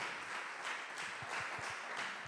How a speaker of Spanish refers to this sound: ¿Y cuántos, si tú lo crees, pueden darle un aplauso a Jesús?